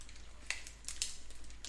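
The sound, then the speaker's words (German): Someone bites into a Pinguin chocolate snack bar, a bit soft and warm, the way shown on the packaging, followed by a few brief, soft crackling chewing sounds in an uneven rhythm, quiet overall with no talking. “Ich muss das jetzt auch so abbeißen, wie das auf der Verpackung ist.”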